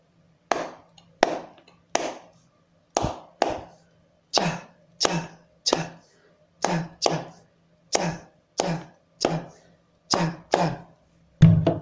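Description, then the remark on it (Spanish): Hands clap out a Uruguayan candombe clave: about seventeen sharp, crisp claps in an uneven, syncopated pattern of pairs and short groups, steady and fairly loud, with no voices. “Cantón uruguayo tiene una clave, tiene varias claves que pueden ustedes acompañar con las palmas de la siguiente manera.”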